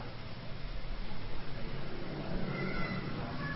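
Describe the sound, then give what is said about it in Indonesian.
A person imitates a donkey's bray, a rough, drawn-out vocal heehaw lasting a few seconds over a noisy, muffled background, not very loud. “Nah, keledai.”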